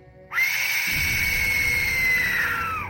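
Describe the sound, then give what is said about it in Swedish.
An Aztec death whistle, blown in the Mississippi River Valley, lets out one long, loud, shrieking wail that sounds like a terrifying human scream, holding a harsh, high pitch for over two seconds before dipping at the end. “found a couple of these in the hands of a uh, male skeleton that was sacrificed to the Aztec wind god”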